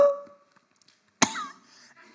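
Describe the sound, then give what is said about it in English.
A voice imitates the sound heard underwater when a scuba diver breathing from a regulator runs low on oxygen: one harsh, raspy burst that sounds close to a cough, with a strangled pitch wavering through it, after a near-silent pause. “So you're breathing into this, and when you're running low on oxygen, you'll hear.”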